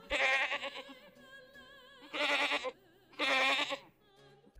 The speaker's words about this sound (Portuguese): Em um barco estava um bode aos berros.